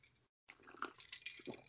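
A wet sip of a strong rum cocktail: a brief pause, then a quick series of liquid slurping and swallowing sounds, with no talking.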